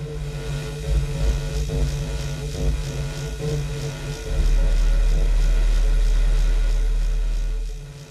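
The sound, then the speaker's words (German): Electromagnetic radiation from power supplies made audible through an Elektrosluch, an EMF microphone from LOM in Bratislava with two capacitors: a steady electrical hum and buzz with faint rhythmic pulsing and static. A deeper, louder drone swells in about halfway through, then drops away at the end. “Der Elektrosluch hat zwei Kondensatoren vorne, die ähnlich wie bei einem Telefon das in einen Lautsprecher einstreut und so dieses macht elektromagnetische Strahlung letztendlich über einen Wandler für uns hörbar machen.”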